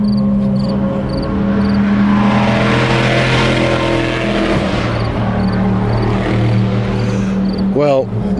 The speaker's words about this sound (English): there's a powerful combination of audio for you the sound of grasshoppers crickling away, and the sound of World Endurance Championship cars blasting around the circuit.